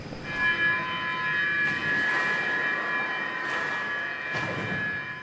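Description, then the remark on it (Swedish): A Stockholm subway train rumbles along with a steady, high electric motor whine over a broad rolling roar, fairly loud throughout, with a few brief surges of rattling noise. “Se upp för dörrarna, dörrarna stängs.”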